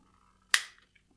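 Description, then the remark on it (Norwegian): A single sharp plastic click as a twist-lock mount is turned until it snaps into place, followed by a faint softer tick; otherwise quiet, with no one talking. “Så skal jeg vri den om til jeg hører da et klikk.”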